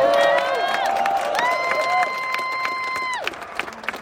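A small audience claps steadily while loud, sustained whooping cheers ring out over the applause, the cheering breaking off near the end as scattered claps continue.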